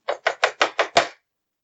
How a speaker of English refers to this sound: there's suddenly a knock on the door. Oh no! a series of sharp knocks with a fist.